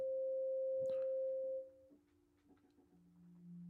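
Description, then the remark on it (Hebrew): A synthesized 528 hertz sine tone sounds loud and perfectly steady for almost two seconds, then drops away, leaving a softer, lower drone under faint background noise until another low tone enters. “ורק כדי להמחיש לכם טיפה איך זה נשמע, אז כשאני אומר תדר, זה התדר המסונטז, זה 528 הרץ,”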